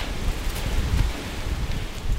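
Soft, continuous rustling of tree leaves stirred by wind, heard from a distance beneath a low, steady wind rumble, while walking a forest trail, with no voices and no distinct individual sounds.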